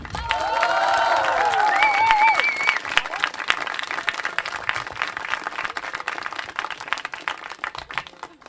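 An audience bursts into loud applause mixed with cheering and whistles for the first few seconds, then settles into steady, dense clapping that continues to the end.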